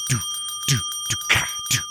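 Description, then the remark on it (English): A phone ringtone playing the Unsolved Mysteries theme tune: steady high electronic tones held throughout, with bright pulsing notes and low swooping accents repeating about every half second, no voices. “So the only problem with it is I had that as my ringtone forever back when I cared about having not just a regular ring.”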